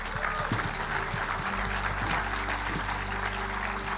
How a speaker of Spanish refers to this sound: Vamos, iglesia, le damos un aplauso a aquellos valientes.